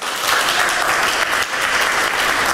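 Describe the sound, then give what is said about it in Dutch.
A live crowd applauds steadily, a dense, continuous wash of clapping that stays loud and full throughout, with no one speaking over it. “Samen met het live publiek laat u even horen.”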